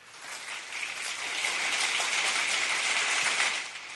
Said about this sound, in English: I had to applaud that.